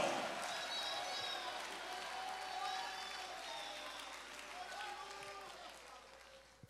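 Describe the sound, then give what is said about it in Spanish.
An audience in the house of God claps steadily for several seconds, giving glory to God, a dense wash of applause with voices calling out over it. The sound tapers off near the end before a sudden loud burst cuts in. “Alguien puede hacer ruido en la casa de Dios, aplaudiendo y dando gloria a Dios, gloria a Dios, gloria a Dios.”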